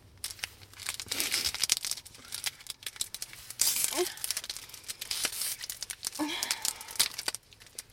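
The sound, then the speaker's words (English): Crinkling of a Morinaga Hi-Chew candy wrapper being opened: bursts of bright, crackly rustling and tearing come in irregular waves for several seconds, with brief voices murmuring underneath. “Morinaga Hi-Chews are like my favorite candy.”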